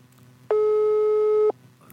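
A single steady telephone tone sounds for about a second while a phone call is being dialed, loud and clean with a clear pitch, starting and stopping abruptly over a faint background hum.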